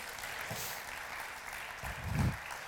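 A crowd applauds the Lord Jesus Christ steadily, a dense wash of clapping from many hands filling the room, with a slight swell near the end before it continues.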